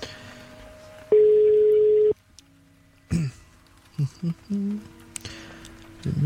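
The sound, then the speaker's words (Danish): A phone call from the radio station Radio Loud to the newspaper Den Vestjyske Kystavis is placed: a steady electronic ringback tone sounds for about a second, followed by short tonal blips and line noises as the connection goes through, with faint voices in the background. “der ringer fra Radio Loud.”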